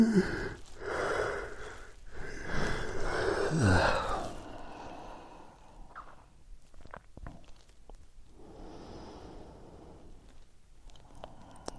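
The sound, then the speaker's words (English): A genuine, unforced yawn, long and loud, swells over about four seconds and trails off with a falling, groaning pitch, followed by quieter breathy exhales and faint rustles. “Just let you know when I yawn, it's a genuine yawn.”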